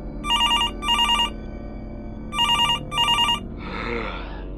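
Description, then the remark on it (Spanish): A telephone rings on an outgoing call: two pairs of bright, warbling electronic trills with a pause between, then a muffled click as the line picks up. “Bueno, vamos a ver, vamos a hacer una llamada”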